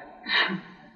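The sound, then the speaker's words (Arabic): A single short sneeze, a sharp breathy burst lasting about a third of a second, heard alone at moderate loudness with no talking around it. “رحمك الله”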